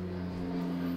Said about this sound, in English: That's a plane.